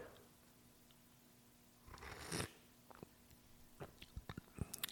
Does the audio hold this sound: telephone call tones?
no